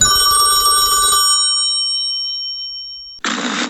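A telephone bell rings loudly once with a metallic clatter, its tone lingering and slowly fading, before an abrupt burst of rough noise cuts in at the end. No voices are heard.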